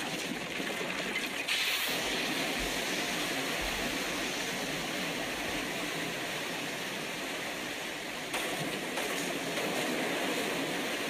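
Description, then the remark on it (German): Dense, steady rushing water fills the whole stretch, a loud enveloping roar with no pauses and only slight surges in intensity partway through. No one speaks. “Wasser irgendwie von allen Seiten.”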